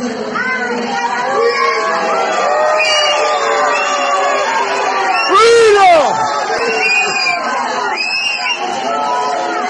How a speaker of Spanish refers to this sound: bueno, abucheos, insultos para el gobernador